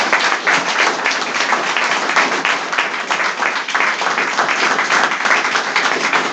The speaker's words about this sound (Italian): vorrei che ci fosse un grande applauso insomma anche per tutta